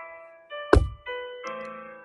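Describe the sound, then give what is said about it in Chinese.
A single heavy, booming thud as the big grey wolf rams against a brick house in a children's story, striking once over a soft, steady music bed and quickly fading. “大灰狼又开始撞房子。”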